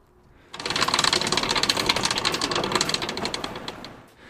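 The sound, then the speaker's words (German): A crank on mobile rolling shelving in an archive is turned, giving a steady, rapid mechanical clatter of gears and clicks that starts abruptly, runs for a few seconds, then winds down. “Übergänge von Themen während des Gesprächs zum Großteil auch hörbar gemacht erkennbar an dem Rotationsgeräusch, den unsere Rollregale im Archiv machen.”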